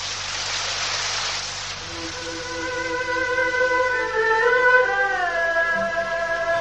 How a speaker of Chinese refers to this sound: 下雨了，快回去吧，快走吧。